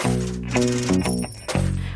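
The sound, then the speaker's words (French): Precious-metal coins drop and clink several times in quick succession, each impact leaving a bright metallic ring, over a steady, humming tonal background. “On peut alors utiliser des pièces de métal précieux qui permettent, par leur nombre, de donner une valeur à chaque chose.”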